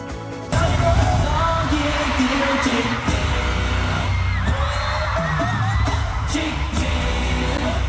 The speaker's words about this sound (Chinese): 前进泰国曼谷开唱，一出场粉丝尖叫声不断，没想到发生了意外插曲。